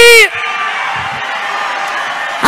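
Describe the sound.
A loud crowd at a church worship gathering cheers and shouts in a steady, dense roar, opened by one strong voice's brief shout before the massed cheering takes over for the rest of the moment.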